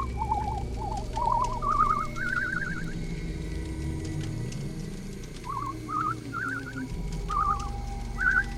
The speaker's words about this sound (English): The whistling grew louder as it approached.